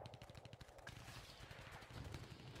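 Rapid bursts of gunfire crackle in quick succession, like a machine gun firing steadily and loudly throughout the short stretch, with no voices present.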